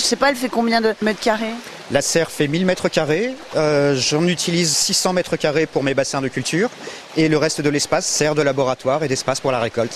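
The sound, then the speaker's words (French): Paddle wheels stir the water of spirulina culture ponds under a huge greenhouse in a steady, splashing wash that runs continuously in the background, while a person talks over it throughout. “Alors le bruit que vous entendez derrière moi, ce sont des, hum, je sais pas comment ça s'appelle, des, moulins on dirait. Hein. Des roues à aube.”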